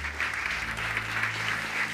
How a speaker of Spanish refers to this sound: Pero antes, quiero pedirte un fuerte aplauso al Espíritu Santo.